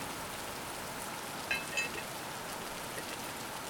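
Steady rain patters on a surface, a dense, even hiss with soft droplet ticks throughout, plus a brief faint high tone near the middle. No voices.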